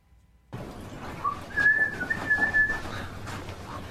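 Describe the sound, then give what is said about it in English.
A person whistles a short melodic tune, several clear high notes rising and falling over about three seconds, against a low background hum. “I haven't had your whistle in months.”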